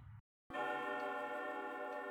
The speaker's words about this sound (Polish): Poczekał, aż zegar wybije dwunastą i zastukał kamieniem.